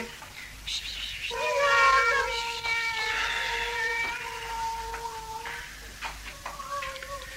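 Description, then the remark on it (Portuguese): Several cats meow in long, drawn-out, overlapping wails that rise and hold for a few seconds, fairly loud, then a shorter meow follows after a brief pause. “quer ter a bondade de levar os gatos lá para fora?”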